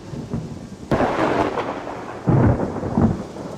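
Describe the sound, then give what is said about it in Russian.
Steady rain hisses throughout as a sharp crack of thunder bursts in, followed a moment later by a deep, heavy rumble rolling under the downpour. No voices. “Очередная вспышка молнии осветила приближающийся на полной скорости локомотив.”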